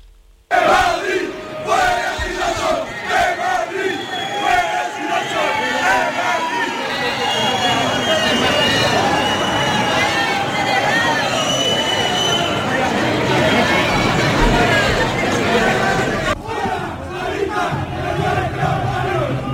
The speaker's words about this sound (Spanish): Pues eran los eh, gritos que escuchaban en esa manifestación y que han hecho que el gobierno anuncie que va a llevar a la Fiscalía esa manifestación protagonizada por grupos neonazis.